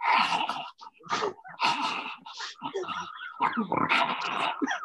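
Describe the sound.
A person imitates the odd bark of a dying Pekingese dog, likened to The Walking Dead, with a string of raspy, grunting bursts, fairly loud, uneven in rhythm with short gaps between them.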